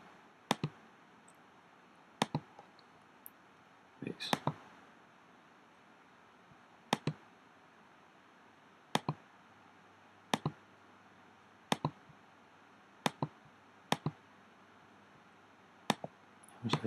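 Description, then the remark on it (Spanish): Sharp computer mouse clicks, some single and some in quick doubles, land every second or two over a faint steady hum, crisp with no voices, as someone double-clicks to open a synthesized circuit schematic in design software. “Si pinchamos dentro de él, porque nos hemos pasado a la hora de hacer clics,”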